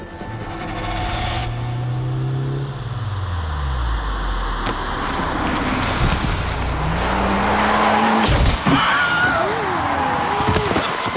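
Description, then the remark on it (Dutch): A car crash sound effect, mixed in surround, of a person being run over by a car as he hits the windshield: a falling engine whine and screeching tires, then sharp crashing impacts, followed by squealing, wavering tones. Loud throughout. “Dus gaat iemand die, die eigenlijk wordt overreden door een auto op het moment dat hij op de ruit gaat.”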